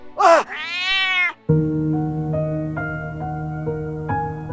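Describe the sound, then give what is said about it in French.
A cat lets out two loud meows, the second long and drawn out, followed by a pause and then sustained, droning musical tones that continue to the end. “Ce chat hante ses nuits.”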